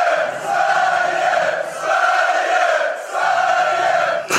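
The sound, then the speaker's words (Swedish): A supporters' section chants in unison, three loud sustained rhythmic phrases with brief dips between them, the massed voices forming a steady mid-pitched roar. “Får vi höra vår klack?”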